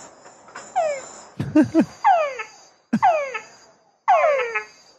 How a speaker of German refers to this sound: Also das ist der Ruf des Frosches.